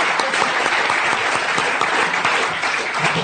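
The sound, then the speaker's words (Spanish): Sustained audience applause, a dense steady wash of many hands clapping at an even, loud level throughout, with no voices standing out. “Un fuerte aplauso, muy bien.”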